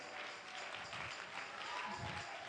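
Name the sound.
audience clapping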